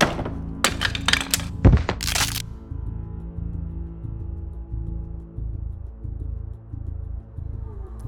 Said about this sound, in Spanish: El cordel se cerró en el cuello, escuchándose un grotesco sonido como una caña al ser fracturada.